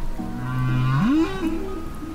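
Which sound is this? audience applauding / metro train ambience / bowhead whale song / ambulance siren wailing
bowhead whale song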